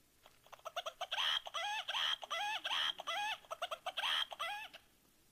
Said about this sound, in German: Jeden Morgen hörte er den Hahn krähen und jeden Morgen wurde er daran erinnert, ich habe versagt.